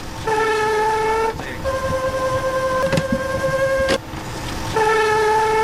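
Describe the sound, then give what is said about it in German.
A harsh mechanical squeal from an automatic beard-winding machine, sustained shrill tones that shift pitch in three stretches, broken by brief clicks, over a steady grinding rumble; no one speaks. “Was war denn das für ein grässliches Quietschen?”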